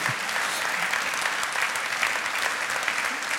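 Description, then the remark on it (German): Steady applause from an audience at a prize announcement at the ZKM, a dense, continuous patter of many hands clapping at an even, fairly loud level with no talking over it. “Und das ist ein Applaus wert, oder?”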